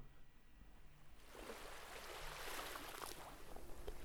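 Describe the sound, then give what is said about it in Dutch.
After a second of near quiet, sea water swells in and keeps gently lapping and washing, calm and slow, a steady, moderately loud watery rush with no voices. “Luister naar de zee.”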